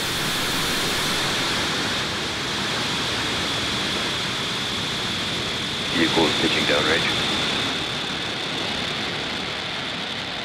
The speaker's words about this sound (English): 5, 4, 3, 2, 1, ignition, engines full power, and off of Starlink 6-10. Go Starlink, go Falcon.